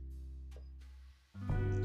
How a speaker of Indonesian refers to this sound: aduh ini kayaknya harus ditimpa sama ini deh sama background karena kalau nggak gitu ini suara mobil motor nggak karu-karuan ini dia